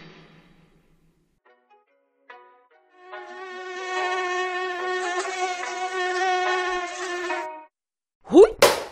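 A mosquito's thin, high whine fades in after a few faint blips and holds as a steady, slightly wavering buzz for about four seconds before cutting off, followed by a quick rising swoosh.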